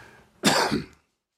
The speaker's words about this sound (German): Äh, das war kein Räusper, das war, ein, das war ein echtes Husten.